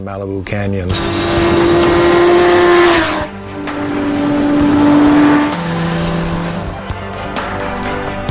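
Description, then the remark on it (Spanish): A Suzuki GSX-R sport motorcycle engine revs hard on the canyon roads of Malibu, United States, its whine climbing and falling through several sweeping pitch changes over about seven seconds, loud and continuous with no talking. “El lugar perfecto para descubrir lo divertido que es conducir una Suzuki GSXR.”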